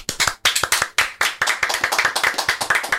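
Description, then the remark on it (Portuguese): A group of people claps steadily for about three seconds, a dense, crisp patter of many hands that stays fairly loud throughout, with no voices over it, welcoming a guest to the show. “E Uma salva de palmas.”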